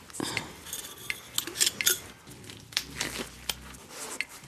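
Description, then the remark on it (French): Crinkly rustling and soft snapping of thin disposable gloves for examining pregnant women being pulled out during a prenatal examination, in scattered bursts with a few sharper crackles and light clinks. “Vous avez sorti les gants”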